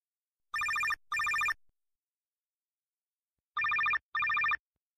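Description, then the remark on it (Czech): An outgoing phone call's ringing tone, heard as two clear double rings of short buzzy tones separated by a pause of silence, with no voices. “Užte si rozhovor a já už teď volám”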